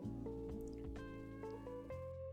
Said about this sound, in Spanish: Una disculpa, escucharon mi celular vibrar